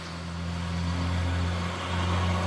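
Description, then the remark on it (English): Cars pass by on wet pavement in rain with a steady hiss of tires, over a low, continuous engine rumble that swells slightly, with no voices. “That's what I hear when I listen to the cars driving on the wet pavement now.”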